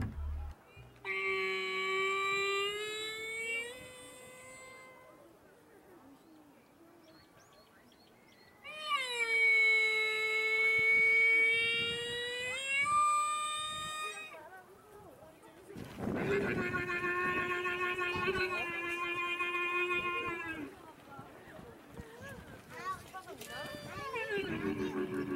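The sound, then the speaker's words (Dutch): A camel calls out in three long, drawn-out wailing cries, loud, each a few seconds long with short pauses between them and some rustling background noise. “Om het goed te maken, dit is het geluid van een kameel.”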